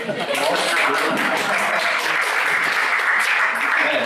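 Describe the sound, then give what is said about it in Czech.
An audience at the stand-up comedy show Imigrant in the Piano Lounge in Prague's Old Town applauds steadily, a dense wash of many hands clapping at once with scattered sharper claps on top, sustained at an even, fairly loud level with no talking. “Díky za potlesk, jste úžasný.”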